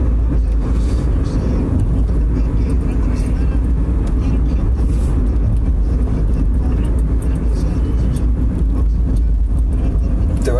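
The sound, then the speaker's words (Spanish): A car drives steadily along a road, its engine and tires producing a constant, loud low rumble with a broad hiss of road noise that never lets up. “Estoy manejando, perdón.”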